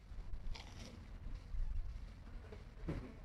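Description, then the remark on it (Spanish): Two short, crisp crunches of biting into a fried morocho corn empanada at the restaurant of Hotel Reina Isabel on Avenida Amazonas, fairly quiet, spaced a couple of seconds apart over a steady low background rumble. “O sea, me confirma la producción si se escucha el crunch ahí.”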